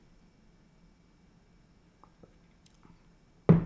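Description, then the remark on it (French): Near silence with a few faint mouth clicks, then a sudden loud sip of still, flat lemonade right at the end. No one speaks. “là j'ai une petite limonade sans bulle, donc euh, comment ça pourrait ne pas Je sais pas, j'ai pas testé encore, mais j'ai un peu peur de le faire, je te bah, cache pas.”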